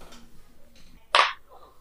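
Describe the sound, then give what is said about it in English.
A single sharp, loud sneeze bursts out after a stretch of faint, low murmuring, then fades quickly into quiet. “Bless you.”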